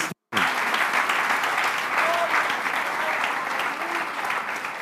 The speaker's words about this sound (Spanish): Amén, hermanos. Damos un aplauso